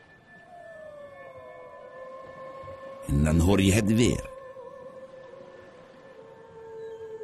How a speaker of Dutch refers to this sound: Het is een vrouwenstem. Die zingt zo sensueel. Jij wilt dat beter horen.